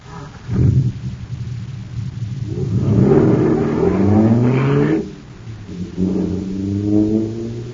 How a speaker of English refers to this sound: Wow, this jet car is supercharged now. Sure thing. There's super fuel in it.